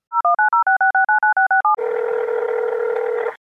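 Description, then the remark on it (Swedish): A rapid string of beeping touch-tone dialing keys, about a dozen in quick rhythm, as a call is placed to the winner of the Rockflödet Unsigned contest, followed by a steady, loud telephone ringing tone held for nearly two seconds. No voices. “ska inte du slå en pling till, eh, till vinnaren och gratulera?”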